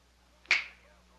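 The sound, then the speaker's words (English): A single crisp finger snap cracks out against near silence, bright and sharp, with a short ringing decay afterward. No one speaks. “Uh, Go ahead. Snap your fingers.”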